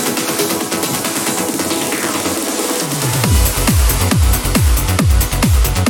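A new trance track plays loud: shimmering synth pads build for a few seconds, then a punchy four-on-the-floor kick drum drops in and pounds at a steady, driving tempo.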